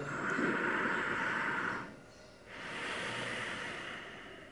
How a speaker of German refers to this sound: Atme tief ein und aus. Wenn du magst, kannst du auch einen hörbaren Ujjayi-Klang erzeugen. Dieses Geräusch in der Kehle.